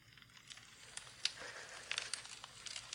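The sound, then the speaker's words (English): A quiet fireplace fire crackles steadily, with scattered sharp pops and snaps over a soft, continuous hiss of burning. No one speaks. “I'm going to put this 12 hours of relaxing fireplace sounds, burning fireplace and crackling fire sounds on.”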